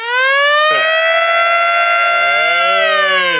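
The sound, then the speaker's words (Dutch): A loud, sustained alarm siren wails steadily with a rich stack of harmonics, its pitch wavering slightly before sliding down near the end. It is played on a Dutch radio show as its '532-alarm'. No voices are heard. “Het 532-alarm.”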